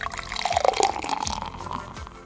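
Water pours steadily into a glass, a continuous bubbling splash with a faint rising tone as it fills, lasting a couple of seconds with no voices.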